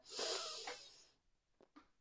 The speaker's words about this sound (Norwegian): Da starter vi med å puste godt inn med nesa.